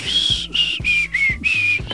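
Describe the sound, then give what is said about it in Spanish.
A person who cannot whistle tries to whistle: five short, breathy bursts with a thin, wavering tone buried in lots of airy hiss, each puff separated by a brief pause. “Perdón que sirve tan nunca, no sé silbar.”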